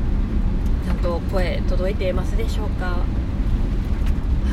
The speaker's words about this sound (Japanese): 今日はねかなりこう雨が降っている中バチバチバチバチ多分ね雑音が入ってると思うんですけれども